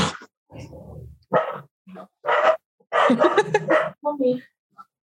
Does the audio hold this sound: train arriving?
no